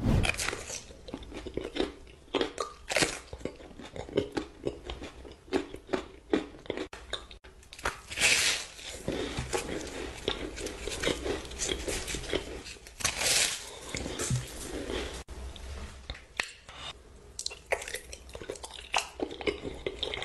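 A woman eats crunchy food in an ASMR clip from her TikTok videos: a steady stream of sharp, crackling bites, the crunches loud and bright with brief pauses between mouthfuls and no talking.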